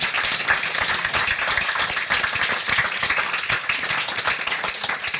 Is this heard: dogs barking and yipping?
no